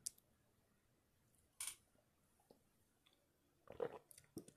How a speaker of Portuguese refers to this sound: É, mais um golinho de café, um instantinho.